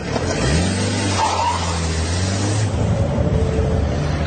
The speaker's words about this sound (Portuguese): Cego de ódio, Murilo apanhou o revólver e saiu com o seu carro em alta velocidade, deixando Nair aflitíssima.